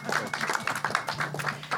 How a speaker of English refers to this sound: Uh, and yes, please, round of applause for our special guest.